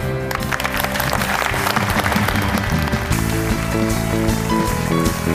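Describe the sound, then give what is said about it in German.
An audience applauds loudly and steadily for several seconds as a football club's sports director is introduced on a German sports show, dense clapping with a tonal musical backing playing underneath. “Applaus erstmal.”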